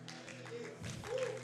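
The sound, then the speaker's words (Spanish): An audience at a sermon breaks into steady applause for the Lord, a dense wash of many hands clapping at once, with murmuring voices mixed underneath throughout the short burst. “Aplaude. Si es para el Señor, más fuerte, porque eso es para el Señor.”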